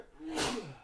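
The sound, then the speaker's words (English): A single sharp sneeze bursts out, a quick breathy explosion of noise peaking mid-clip and trailing off with a brief voiced tail, heard on its own without talking. “Bless you.”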